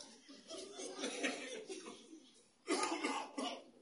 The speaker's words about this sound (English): I don't blame you for coughing, guy.